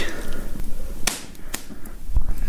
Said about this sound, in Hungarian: egy jó nagy pattanással és egy fújással sikerült egy füstölőt meggyújtanom. Hát de mégse sikerült, úgyhogy ismétlés következik.